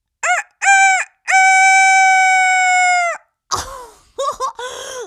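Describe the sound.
A voice imitates a rooster crowing, loud: two short clipped notes, then a long held cock-a-doodle-doo, followed by a few rougher, squawking bursts.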